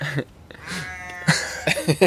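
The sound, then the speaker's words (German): A few sheep bleats sound, one drawn-out wavering call followed by a cluster of shorter, harsher bleats near the end, with light background noise and no talking. “und das Schaf hört nicht auf zu mähen und der Esel hört nicht auf zu miauen.”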